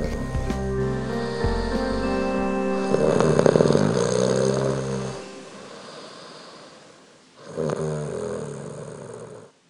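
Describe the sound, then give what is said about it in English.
Loud, rattling snores with a buzzing, throaty drone: one long drawn-out snore lasting several seconds, a brief quiet pause, then a second shorter snore. No talking. “The funny thing is that you snore too, but I don't mind.”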